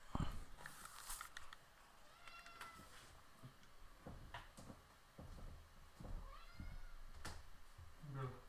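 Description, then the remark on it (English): A cat meows a few times, its calls rising and falling, mixed with scattered knocks and clattering sounds like a door or cupboard being handled. “In just a second, we're going to go ahead and let the kitty out.”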